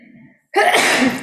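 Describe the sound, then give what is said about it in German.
A single loud sneeze bursts out suddenly after a brief faint murmur and a moment of silence, with a sharp noisy blast that fades quickly. “Gesundheit.”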